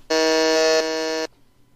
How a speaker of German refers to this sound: Das ist genau mit dem buzzer das wir uns hier wieder ausgedacht haben